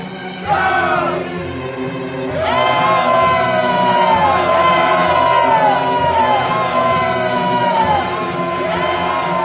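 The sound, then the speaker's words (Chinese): An army of Israelite soldiers shouts together at Jericho in a loud, sustained roar, many voices yelling with rising and falling pitch; the din swells after a couple of seconds and holds steady to the end. “”而跟随其后的以色列人开始大声呼喊。”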